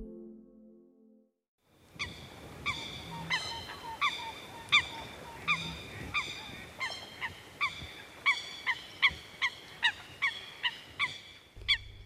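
Eurasian coot calling, a long run of sharp, nasal honking notes repeated in a steady rhythm over faint outdoor background noise, with no voices.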